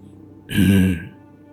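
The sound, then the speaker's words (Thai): A single raspy throat-clearing, like an elderly person's, fairly loud, lasting about half a second against a quiet background with no talking. “เสียงเหมือนกระแอมไอ ในลำคอของคนแก่ๆ”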